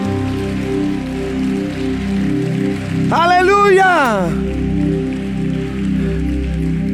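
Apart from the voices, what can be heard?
audience applauding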